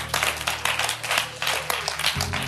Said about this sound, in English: Clap your hands for God.